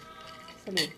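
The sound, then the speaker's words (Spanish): A short, bright, fairly loud clink of glasses touching in a toast near the end, with a brief voice sounding at the same moment over a quiet background. “Salud.”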